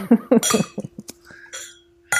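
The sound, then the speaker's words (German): Dishes and glasses clink and clatter in a quick irregular series of sharp knocks, with a sustained ringing tone from a glass and a brief rustle, as dishes and glasses are cleared away. “ich fange jetzt hier an aufzuräumen”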